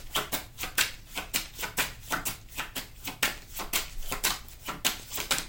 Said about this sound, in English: This came out in the pre shuffle, Four of Pentacles.